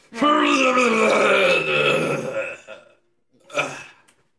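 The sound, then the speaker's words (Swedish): A long, loud, drawn-out groan with a falling pitch, a father's morning stretch echoing through a forest, lasting nearly three seconds, followed after a brief pause by a shorter grunt. “så ni hör hur vet det, … och … gör den här, den här riktiga pappamorgonsträckningen som ekar genom hela skogen”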